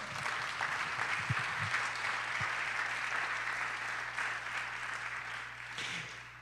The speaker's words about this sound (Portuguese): Você pode dizer glória a Deus, aplauda o nome do Senhor, amado.